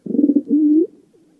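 A single pigeon coo, fairly loud: a low burbling warble that swells into a longer rising note, then fades into quiet.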